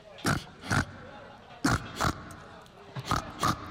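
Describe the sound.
Pig-like oinking and grunting in three pairs of short, snorty bursts, each pair spaced about a second apart, loud with a faint background hum and no talking.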